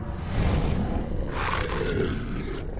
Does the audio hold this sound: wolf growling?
yes